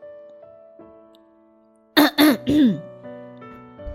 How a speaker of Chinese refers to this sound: 校长背着手清了清嗓子